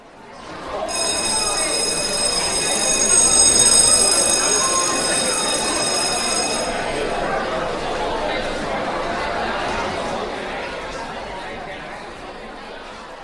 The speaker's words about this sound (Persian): زنگ کلاس به صدا در اومده شما هم آروم آروم و سلونه سلونه از زنگ تفری دل کندید دارید میاین به سمت کلاس